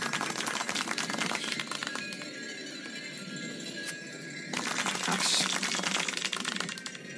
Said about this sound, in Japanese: 一人っ子一人といない無人の空間に祝いの拍手をしております